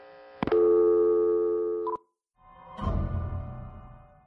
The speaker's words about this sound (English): What was that noise? It sounded like clashing metal. Oh, that's just the pipes. They sometimes do that in the winter.